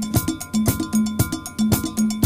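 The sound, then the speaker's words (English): A funky breakdance beat with a bright cowbell riding on top, punchy kicks and snares driving a steady groove alongside a bouncing bassline, loud with no voices. “if you listen to the beat, right there. Here we go, see? Kind of gives you that hip hop”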